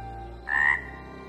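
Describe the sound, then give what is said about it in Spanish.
A single short frog croak, a brief raspy call lasting under half a second, rising clearly above a quiet, steady low background hum with no voices. “Envió entre ellos enjambres de moscas que los devoraban y ranas que los destruían.”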